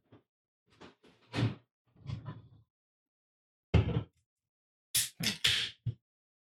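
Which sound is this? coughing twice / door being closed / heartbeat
door being closed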